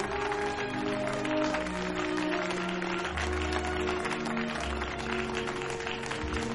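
A crowd of workers claps steadily for a man detained by police, a dense crackle of applause that carries through the whole stretch over sustained low musical tones, with no one speaking.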